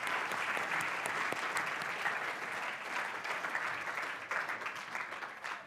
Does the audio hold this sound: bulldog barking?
no